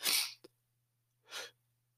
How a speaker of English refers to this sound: and that's the problem I have too is you know whenever I have so many ideas, I gotta sneeze.